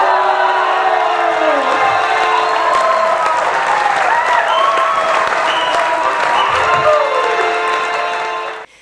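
Loud, sustained applause from a large crowd at a flower competition award ceremony, for the host village district Sobo receiving a golden Flora, with cheering and whoops rising over the dense clapping, continuing steadily for several seconds before cutting off.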